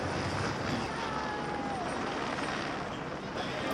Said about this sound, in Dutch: Helikopter.